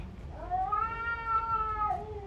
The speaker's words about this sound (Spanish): En el centro de aquel frenesí de pelos, zarpas y maullidos espeluznantes, un enorme atigrado de color oscuro inmovilizó un gato marrón rojizo contra una roca y alzó la cabeza en modo triunfal.